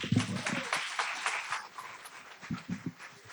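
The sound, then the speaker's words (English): A burst of audience clapping during a sermon, dense and fairly loud at first, then thinning into scattered individual claps before fading out over a few seconds. “Give him a hand clap, guys.”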